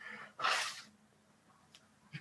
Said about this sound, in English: excuse me, I needed to blow my nose there.